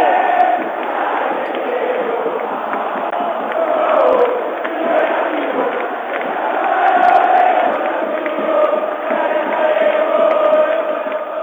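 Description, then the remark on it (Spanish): A huge stadium crowd roars and chants continuously at a football derby, el clásico, as the teams come out before kickoff, a dense, sustained wall of voices that swells louder midway and stays loud throughout. “escuchen, escuchen lo que es el estadio, escuchen, es el clásico.”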